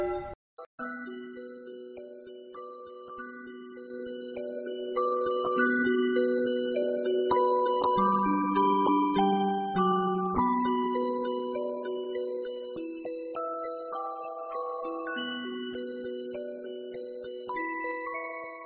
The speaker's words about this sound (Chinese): 此刻，远处教堂的钟声重又响起。